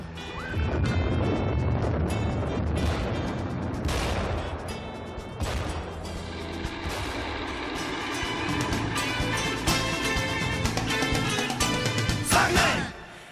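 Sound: gunfire and bomb explosions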